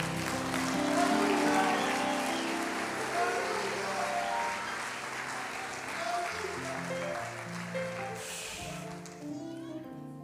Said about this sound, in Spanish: Den un aplauso a Jesús.